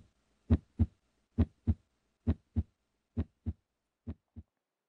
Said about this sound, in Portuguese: podemos parar de ouvir o som do batimento cardíaco.